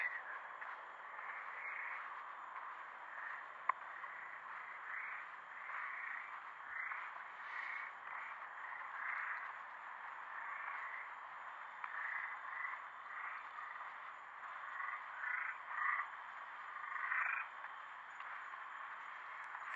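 Frogs croak in a steady chorus from inside a sewer drain, overlapping rhythmic calls that pulse on and on with a hollow, echoing quality, moderately loud and continuous with no voices.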